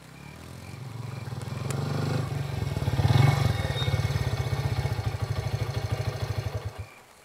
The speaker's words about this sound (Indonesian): Seseorang dengan motor bebek yang suaranya lebih rusak daripada mesin babat datang.